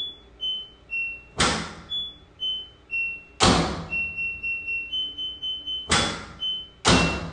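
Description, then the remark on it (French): Short electronic beeps from a washing machine's buttons, pressed at shifting pitches to tap out a rhythmic little tune, broken up by four loud, sharp thumps; no one speaks. “il a été emballé par les sons qu'elle faisait quand il appuyait sur les boutons.”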